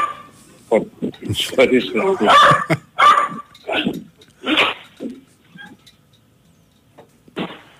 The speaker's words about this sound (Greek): Πλησιάζει ο σκύλος.